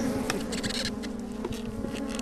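A dense, steady hum of many honeybees buzzing together inside a hive holding brood about to hatch, continuous, with a low droning tone and faint rustling and ticking of bees moving. No one speaks.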